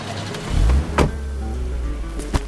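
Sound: taxi pulling up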